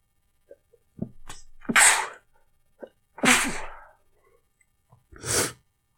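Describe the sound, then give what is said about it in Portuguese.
Three loud, forceful sneezes spaced a second or two apart, each preceded by a quick sharp intake of breath, with no talking in between. “Ó, vou espirrar aqui agora.”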